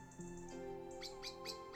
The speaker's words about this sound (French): À l'intérieur, un petit oiseau piaille. Sa maman semble lui dire quelque chose rapprochons-nous un peu pour mieux entendre.